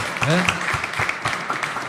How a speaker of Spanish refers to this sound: Y, vale el aplauso, por supuesto. ¿eh? Y vale, vale, vale el aplauso.